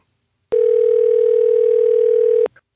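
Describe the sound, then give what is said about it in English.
A steady, loud telephone dial tone hums for about two seconds, starting and stopping abruptly with clicks, followed by a faint brief click, as someone places a phone call to a friend's mother at her work. “I triple dog dare you to get your mom on the phone right now”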